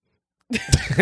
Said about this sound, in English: Bless you, girl.